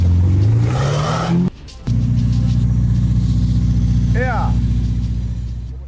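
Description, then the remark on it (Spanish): A Ferrari sports car engine revs up loudly, its pitch climbing for over a second, then cuts briefly before settling into a steady, deep rumbling drone. “véanlo al señor presumiendo en redes sociales, un Ferrari.”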